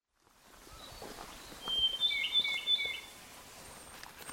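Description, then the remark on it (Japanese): A Ryukyu robin (akahige), a sparrow-sized red bird with a white belly, calling in a subtropical forest on Amami, Japan: a few thin, high whistled notes around the middle, clear but not loud, over soft rustling and ambient patter, with no talking. “今のが赤ひげ赤はい、今の時期の一番代表的な鳥です。”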